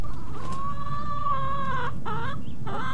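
A hen named Roxy calls out loudly in a long, drawn-out squawk as someone walks away from her, followed by a couple of shorter rising clucks, over a steady low rumble of background noise.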